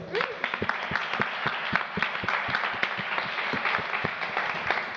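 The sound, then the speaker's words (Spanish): Steady applause from an audience, many hands clapping in a dense, continuous patter with sharp individual claps standing out throughout, sustained at an even loudness with no talking. “Un aplauso, por favor.”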